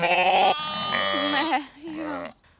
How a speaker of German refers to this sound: So kann sich die Mama den Geruch ihrer Babys einprägen und sie findet sie auch in einer großen Herde wieder. Die Kleinen erkennen ihre Mama am Mähen.